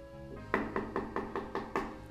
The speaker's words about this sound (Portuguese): alguém bateu na porta do quarto.